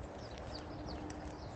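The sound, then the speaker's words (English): Faint birds singing outdoors on a morning stroll, a few short high chirps scattered over a steady background rumble of traffic on the M6 motorway, with soft footstep-like clopping underneath and no talking. “Absolutely gorgeous. You hear the birds?”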